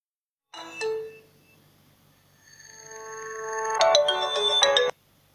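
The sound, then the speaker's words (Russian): A phone ringtone plays: a bright, tonal electronic melody with a sustained high chime building into a louder burst of rapid notes before cutting off abruptly. No one speaks. “А кто это звонит?”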